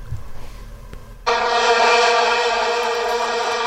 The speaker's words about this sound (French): T'as sûrement un bruit de foule, je parie. Je sais pas, est-ce que j'ai un son de foule en délire